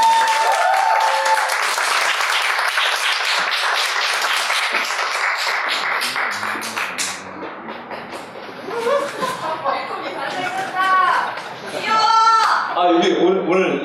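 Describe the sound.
An audience at a book talk bursts into sustained applause to welcome the book's author: dense clapping that holds steady for several seconds, then thins out as voices and scattered laughter rise near the end.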